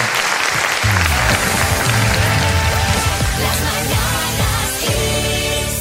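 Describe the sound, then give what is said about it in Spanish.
Steady, loud audience applause fills the whole stretch, a dense crackle of many hands clapping, with tonal music rising underneath after the first second. “os dedicamos este aplauso.”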